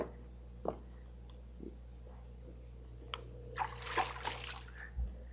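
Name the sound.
water splashing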